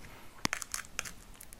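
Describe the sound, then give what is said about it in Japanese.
Crisp crunching as food is bitten and chewed: a sharp bite, then a quick run of crackly crunches fading into softer chews, with no talking. “それもかなり意外だった本当にあこんなものの咀嚼音っていうのがこんなに気持ちのいいもんなんだっていうね”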